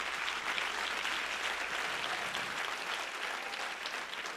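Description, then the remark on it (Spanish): Steady audience applause fills the whole stretch, a dense wash of many hands clapping at an even, sustained level with no voices standing out. “Si usted quiere, usted aplaude y si no, no.”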